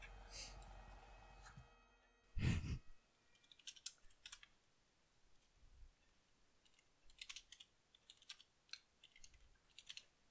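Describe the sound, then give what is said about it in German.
Keyboard keys clicking in short, uneven bursts of typing during a minute of silence, fairly quiet, with a thump partway through and otherwise near silence around the keystrokes. “Ich finde es auch schön, wenn man die Tastatur gehört hat.”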